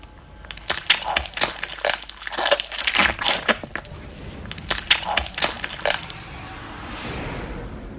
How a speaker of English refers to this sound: this will be the bones of the mother dragon snapping as he pulls the egg out of her. and all of those layers together, and it uh, it worked a treat.